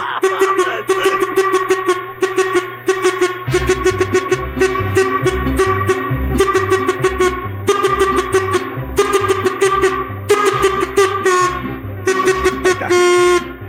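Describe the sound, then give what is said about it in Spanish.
A horn blows loudly and almost without pause, a bright, buzzy tone with rhythmic pulsing underneath that carries on for the whole stretch, with no talking over it. “Hasta a él le molesta la corneta, tío.”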